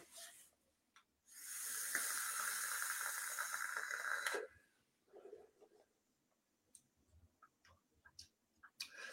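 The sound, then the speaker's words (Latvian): A steady, airy hiss lasts about three seconds as air is drawn through a vape using only the bottom airflow, followed by a few soft clicks and faint rustles. No one speaks. “Nu, pamēģināsim tad tikai apakšu. Gaisa padēvu, tikai tīri apakšu, no apakšu nāk, ja?”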